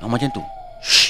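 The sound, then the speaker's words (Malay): A voice makes a single breathy 'hush' whoosh imitating a passing gust of wind, right after a few brief spoken words. The airy burst is short and fairly loud. “Mula-mula dia rasa macam ada angin yang melintas Hush.”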